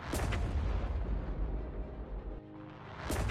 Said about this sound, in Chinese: 海上突然传来爆破声，声波的震荡把破损比较严重的窗户震出更大的裂缝，船身摇晃的程度堪比昨夜台风过境。